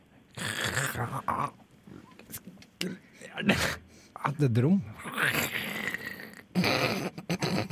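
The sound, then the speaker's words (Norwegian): A person growls like a bear in rough, throaty bursts during a phone call to a hotel, mixed in with excited talking and laughter between the growls. “Du var en bjørn! Du var så jævlig en bjørn.”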